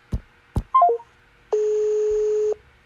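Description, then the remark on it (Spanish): Two quick taps, then a short descending three-note chime, followed by a steady electronic tone held for about a second as a WhatsApp call is dialed. No one speaks. “Dame chance a ver si o sea, se oye bien, pero creo que se puede oír mejor si te marco como tía por WhatsApp.”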